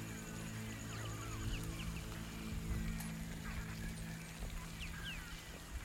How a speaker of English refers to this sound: Can't you hear the birds?